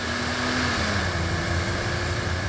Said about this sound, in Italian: Appoggiò la zampa a tavoletta sull'acceleratore e il pulmino scattò avanti ruggendo con un balzo felino.